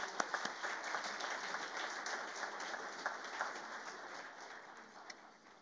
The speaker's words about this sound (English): So, one round of applause for Dr. Shereef Elnahal.